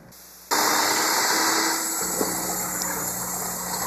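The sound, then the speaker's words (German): An electric hand mixer switches on abruptly and whirs steadily and loudly, a dense motor hum with a faint shift in tone partway through, with no voices. “Ja, es ist das Rührgerät.”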